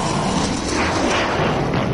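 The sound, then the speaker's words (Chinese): A man deliberately flies a low-flying plane into a club building: a loud, continuous roaring rumble of engine and impact noise that stays dense and steady for about two seconds, with no voices. “人群疏散不多时，这男的就开着飞机，咣”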